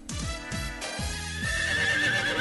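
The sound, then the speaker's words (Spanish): A horse whinnies loudly, a long, shaky neigh whose pitch wavers and drops in several quick pulses before trailing off, with no voices. “Pero miren quién llegó. El, el My Little Pony.”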